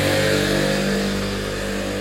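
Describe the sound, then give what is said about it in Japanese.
A motorcycle engine drones loudly on the street, a steady buzzing hum that eases off only slightly as it goes past a person walking outside. No one speaks. “外を歩いていると人とすれ違ったりバイクとすれ違ったりして”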